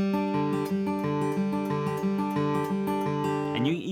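A fingerpicked guitar plays a steady, repeating eighth-note pattern on the D, G, B and high E strings, clear, with notes ringing into each other before a brief scrape at the end.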